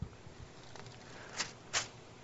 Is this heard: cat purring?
no